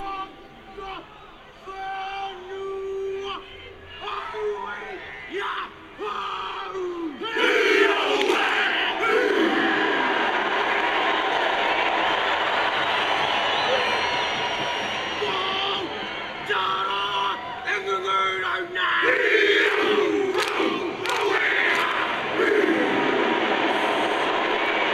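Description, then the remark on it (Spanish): The All Blacks, New Zealand's national rugby team, perform their war chant before a match: a group of men shouting rhythmic chanted lines in unison, loud and forceful, with the captain calling out and a crowd roaring behind them. “All Blacks, orgullosa selección nacional de rugby de Nueva Zelanda, antes de comenzar un encuentro, y que llena de orgullo y fuerza a todo su país, por supuesto intimidando al equipo rival.”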